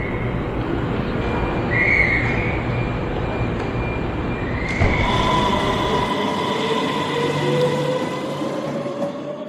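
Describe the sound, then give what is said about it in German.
A steady, loud rumble of a train rolling along the rails from inside a carriage, with faint whining tones and a shift in the noise partway through. No one speaks. “Gerade als ich mir Gedanken zu dieser Folge mache, sitze ich im Zug.”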